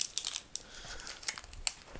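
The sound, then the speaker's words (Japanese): Crinkly plastic bag rustling as it is fitted into a trash bin, a run of irregular crackling crinkles and soft swishes over about two seconds, with no voices. “今ね、今日ゴミの日だったんで、ゴミ出したから、その、ゴミ袋をね、ゴミ袋を今、ゴミ箱に装着したとこ。ガッサガサガッサガサ。”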